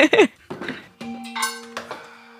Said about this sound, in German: Man hört das das heilige, der heilige Gong einer, B, einer dreiteiligen BBS-Felge.